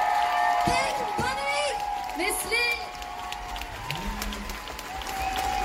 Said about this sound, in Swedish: Ja! Stor applåd för